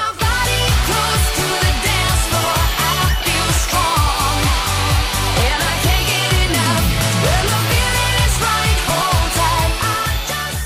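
A loud, driving 2008 dance-pop track with a steady four-on-the-floor kick, pulsing bass and bright synths, playing continuously without any talking over it.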